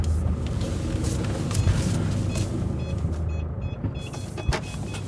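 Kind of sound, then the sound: vehicle, car being parked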